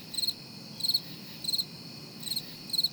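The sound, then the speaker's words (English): Crickets chirp in short, bright trilled bursts, about five pulses spaced evenly over a few seconds, heard alone against a soft, steady background hiss. “Yes, crickets.”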